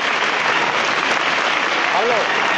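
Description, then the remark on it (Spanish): Sustained applause from the crowd of Jaén as the procession float of the Cristo advances through the Plaza de la Merced, dense and steady throughout, with a brief voice rising faintly through the clapping near the end. “Y el pueblo de Jaén que responde con este aplauso.”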